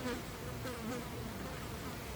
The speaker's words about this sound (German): Ich, äh, ich jage jetzt die Fliege mit dem Messer.